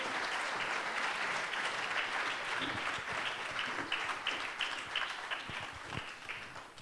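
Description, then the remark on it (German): Sustained applause from a church audience for the church's teams, a dense wash of many hands clapping steadily for several seconds at a fairly even, loud level, with faint voices briefly audible underneath. “Gebt ihnen nochmal einen fetten Applaus und dann dürft ihr schon mal runter.”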